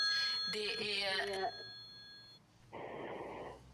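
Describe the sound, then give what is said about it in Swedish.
An electronic telephone ring of steady high tones sounds for about two seconds while a voice briefly talks over it, followed by a burst of broad, hissy noise. “Åh, oh, det ringer, det ringer, vad härligt.”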